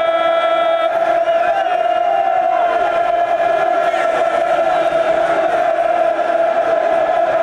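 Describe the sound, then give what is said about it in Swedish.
A loud football crowd roars without a break, a dense wall of many voices with a steady droning tone running underneath for the whole stretch, never rising or falling much; it is the noise the fans make toward the end of matches. “Det är det här bruset som, som de gör i sig.”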